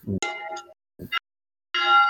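A bell rings three times, each strike opening with a dull knock before a bright, clanging metallic tone; the last ring sustains loudly until the end.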